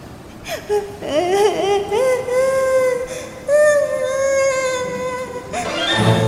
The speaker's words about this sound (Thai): และแล้วเอมมาก็ได้ยินเสียงใครบางคนนั้นร้องไห้